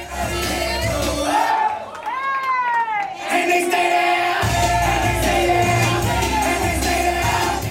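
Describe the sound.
At a campaign rally for gubernatorial candidate Stacey Abrams, the crowd sings and chants a rap song together, loud and continuous. Rising and falling shouted voices sweep upward near the middle before the group singing resumes.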